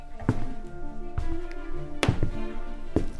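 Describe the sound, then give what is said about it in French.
Soft knocks on the door of the lady living on the fourth floor, on Christmas Eve, about five muffled thuds in an uneven rhythm, a pair coming close together, over a quiet sustained musical background with no voices. “J'ai lentement monté l'escalier et doucement frappé à sa porte.”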